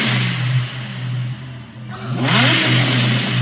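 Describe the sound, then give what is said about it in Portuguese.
An Audi R8 sports car engine revs hard through a loud new aftermarket exhaust, a steady low drone rising into a roaring surge near the end, with no talking. “É a primeira vez que ouvi o R8, já com o escape novo.”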